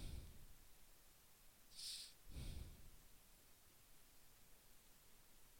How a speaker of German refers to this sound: Ich höre gerade irgendein Rauschen, Digga. Das ist ganz gruselig.